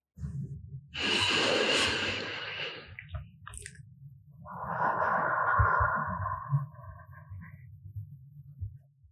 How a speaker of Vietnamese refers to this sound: hãy tập trung vào hơi thở của mình thật chậm rãi hít vào và thở ra